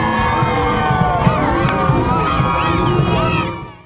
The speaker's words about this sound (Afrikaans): Ondersteuners was in hulle duisende daar om die atlete aan te moedig.